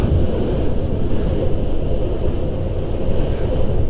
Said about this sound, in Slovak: Tak už mne oznámili pred chvíľkou, že točíme tento podcast vo vlaku z Prahy do Bratislavy